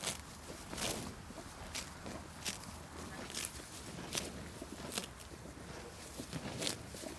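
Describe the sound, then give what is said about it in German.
A grazing cow tears and chews local grass and herbs on a pasture in Waltenhofen, one of 50 cows there, a steady run of crisp ripping crunches every half second or so, fairly quiet against a soft outdoor background. “Das ist die Musik, wie der Mähvorsatz funktioniert von der Kuh.”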